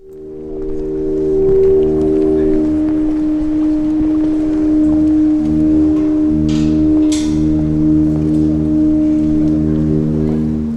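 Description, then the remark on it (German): Underwater current of the Rhine river played through a water harp, a wooden stick with two strings set sounding by the water: a loud, steady droning hum of layered resonant tones that sustains throughout, with a couple of brief hissing swells near the end. “Aufgenommen wurde das Geräusch des Rheins unter Wasser mit einer Wasserharfe, ein Holzstock mit zwei Seiten.”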